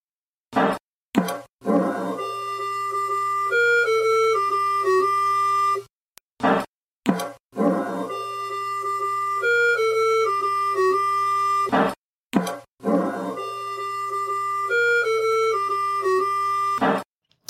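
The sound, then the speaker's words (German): Early video game rendition of a funeral march: a slow, simple electronic melody over a steady low drone, looping three times, each pass opened by short noisy bursts. No one speaks. “Und in dieses kurze Stück hören wir jetzt mal im Kontext des Spiels rein.”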